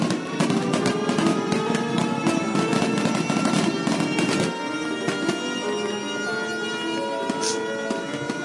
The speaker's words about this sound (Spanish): París, invierno muy crudo. Primeras horas del año nuevo. Se escuchan muy lejos los últimos fuegos de artificio